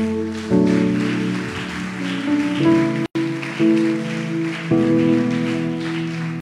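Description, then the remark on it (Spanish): Loud, sustained applause from a church audience honoring God, a dense steady crackle of many hands clapping, with held keyboard chords that shift pitch a few times underneath. “Vamos, honra a Dios con un fuerte aplauso.”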